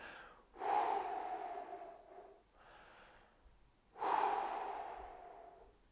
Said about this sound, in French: de faire 5 ou 10 respirations juste pour détendre son corps et euh, bien voilà, être moins soumis euh, au stress que nous a véhiculé soit la vie ou alors la tâche qu'on est en train de faire.